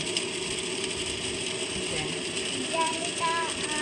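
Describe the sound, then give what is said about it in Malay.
A steady, dense wash of hiss and patter fills the whole stretch as a car drives through rain, with a few faint higher squeaks near the end. “Oh, car driving in in rain.”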